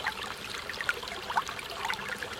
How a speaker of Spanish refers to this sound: Cuando el río suena,